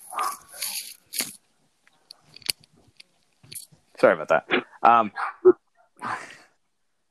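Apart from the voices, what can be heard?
dog barking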